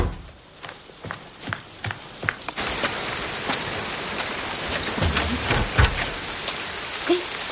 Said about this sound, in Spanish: Se levanta de la silla, camina por la calle bajo el aguacero.